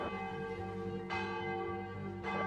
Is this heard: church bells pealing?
yes